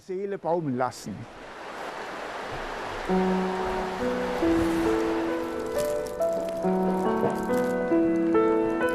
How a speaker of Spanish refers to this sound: Bad Hindelang tiene bonitos lugares que ofrecer, pero este es uno de mis favoritos porque ante mí tengo las claras aguas del Ostrach, un río virgen, y pasear por sus orillas es una verdadera delicia.